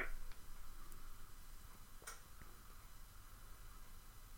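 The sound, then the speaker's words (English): A few faint, irregular ticks from an oven timer while supper is cooking, spaced unevenly over several seconds against a quiet background hiss, with no one speaking. “Also, I might as well acknowledge I'm making supper uh, for later, so you might hear some ticking of the oven in the background.”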